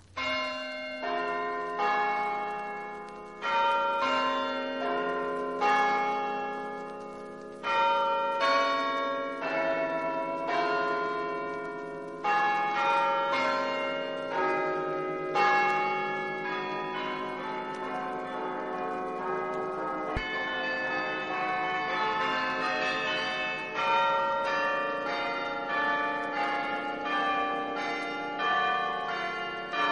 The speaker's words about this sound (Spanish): sobre todo por el instrumento que los interpreta, el Carrillón Hope Memorial de la Universidad de Rochester, con un increíble sistema de 50 campanas que se tocan mediante un teclado y que lo convierten en uno de los carrillones más grandes del mundo.